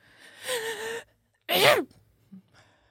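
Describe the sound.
A voice mimics a stifled sneeze: a strained, building inhale followed by a short, sharp, muffled burst that gets choked off, then a small tail sound.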